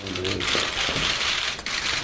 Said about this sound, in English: The clicking of cameras drowned out the only public interaction between the two men.